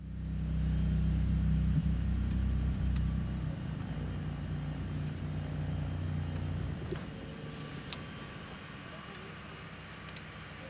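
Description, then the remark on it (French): A boat engine is started and rumbles with a steady, deep hum that is strongest at first, then settles into a rougher, lower drone, as the boat is positioned to enter a canal lock. A few faint clicks and knocks sound over it. “Mais non, c'est le signal que nous attendions pour allumer le moteur et nous positionner.”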